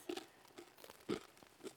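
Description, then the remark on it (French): Crunching as someone bites and chews a piece of crusty baguette bread, a few crisp, brittle crackles in uneven bursts, fairly quiet with no talking. “ça croque, c'est qu'a priori on est bien effectivement sur un morceau de pain, mmh, la baguette plus exactement.”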